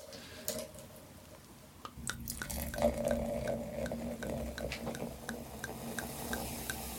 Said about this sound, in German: So, jetzt gießen wir mal hier ein.